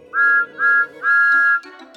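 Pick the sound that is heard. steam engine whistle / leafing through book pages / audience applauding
steam engine whistle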